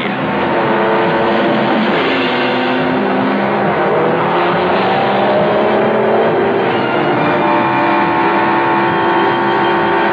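Loud, continuous engine roar from Formula One racing cars in a Metro Goldwyn Mayer Cinerama film by John Frankenheimer, with shifting tonal whines rising and falling as they speed past, filling the whole stretch without pause and no voices.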